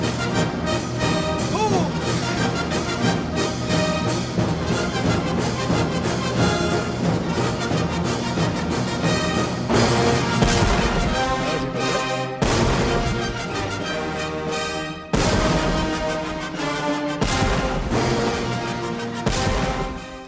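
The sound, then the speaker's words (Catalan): Full orchestral music, the music used in V for Vendetta, swells loudly, then heavy booming cannon shots punctuate it every few seconds in the second half, each blast cutting sharply through the sustained strings and brass. “Que abans de B de Vendetta també era la música que s'utilitzava per l'anunci del risc.”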